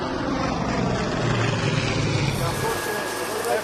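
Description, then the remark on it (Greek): A Canadair propeller firefighting plane flies over a wildfire at Stefani, Greece, near Parnitha, droning loudly and steadily, its low throbbing engine hum layered under a broad rushing roar that holds constant for the whole few seconds, with a slight tonal shift near the end. “στη μάχη και τα εναέρια μέσα που έχουν ενισχυθεί σήμερα με δύο καναντέρα από Γαλλία και άλλα δύο από Ιταλία.”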